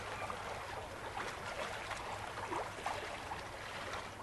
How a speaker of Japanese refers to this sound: 池にはいくつものボートが浮かんでいる若いカップル老夫婦女性同士オールをこぐ手を休めてさざ波に我が身を委ねる